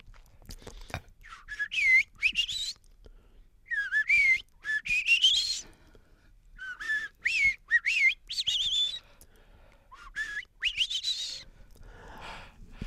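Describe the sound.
A person whistles an imitation of birdsong, repeating short bursts of rising and falling chirpy phrases with brief pauses between them, fairly clear with no talking.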